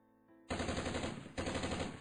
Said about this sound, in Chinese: 于是又是一阵枪声响起来了，原来有人在大规模的打猎，猎人都埋伏在这沼泽地的周围，有几个人甚至坐在了伸到芦苇上空的树枝上。